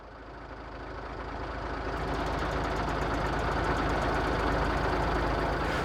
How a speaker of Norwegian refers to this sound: Når vi nærmer oss Gratangsfjellet, så er det jo store eh, trafikkproblemer. Kilometervis med kø oppover fjellet der, med militære kjøretøyer og også sivile kjøretøyer, som da skal forbi det her eh, skredområdet.